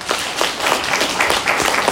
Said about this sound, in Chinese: 好，那平常有跟上线讨论体系图的，请举手。好，没关系，举手举手来。 OK，好，谢谢。好，来，掌声，掌声，来。